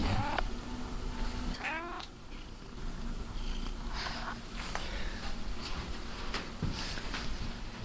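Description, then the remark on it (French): A cat meows several times with rising, wavering cries over a steady background of outdoor noise and low rumble. “Il y a des chats partout ici.”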